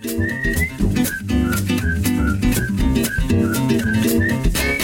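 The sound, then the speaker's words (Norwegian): Brief, high chirping spring bird calls repeat every half second or so at a snow-free coffee spot, riding over loud, steady music with a rhythmic beat and a warm bass line. “Sammen med fuglekvitter eh, på en hyggelig, veldig hyggelig og snøfri kaffeplass.”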